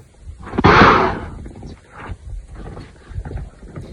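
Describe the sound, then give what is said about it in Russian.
A loud, sharp snort from a large African elephant bursts out, a breathy blast lasting under a second, followed by softer rustling and low thumps as it shakes its head, its ears spread and head tilted forward. “Он явно сделал какой-то нелестный для меня вывод, резко отпрянул, наклонил в мою сторону голову, растопырил уши и одновременно резко фыркнул и тряхнул головой.”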